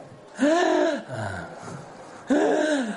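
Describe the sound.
A person demonstrates quick, shallow breathing high in the chest: two loud, raspy inhalations with a wheezy, strained tone, separated by a softer, breathy exhale.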